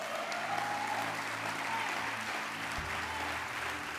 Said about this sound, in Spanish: ¿Alguien puede dar un aplauso al Señor por eso?